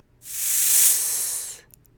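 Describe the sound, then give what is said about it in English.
A person hisses like a snake to demonstrate the s sound, tongue against the bottom teeth and teeth together, gently blowing through them: one steady, sharp "sss" held for over a second, fairly loud, then cutting off into quiet. “Can you imagine the sound that a snake makes when it hisses?”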